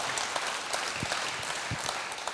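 A crowd applauds the whole team steadily, a dense, even wash of many hands clapping at a moderate level, with no voices standing out above it.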